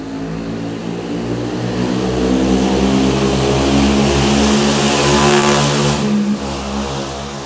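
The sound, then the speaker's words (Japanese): A loud motorcycle roars past, its engine droning with strong harmonic tones that swell to a peak mid-clip before fading slightly as it moves off. No one speaks. “すごいバイクが通りましたね、まあ、すごい物音どころじゃないバイクが通りましたけれど”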